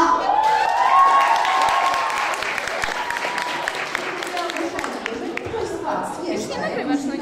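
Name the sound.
audience applause and cheering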